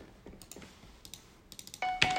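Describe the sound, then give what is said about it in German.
A series of sharp clicks from an old corded Logitech gaming mouse with a red-light sensor, in an irregular rhythm, followed near the end by a sudden louder burst of hissing noise with a faint steady tone. “Also diese Maus, die ist absolut grottig.”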